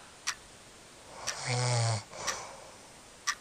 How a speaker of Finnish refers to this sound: Miksi mä saa unta? Ei, miksi toi kuorsaa tuossa vieressä?